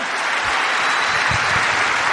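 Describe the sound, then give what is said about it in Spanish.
An audience at a convention in Rosario claps steadily for itself, a dense, continuous wash of many hands applauding at full volume with no voices standing out. “Dese un fuerte aplauso por usted haberse comprometido a estar en Rosario en esta convención.”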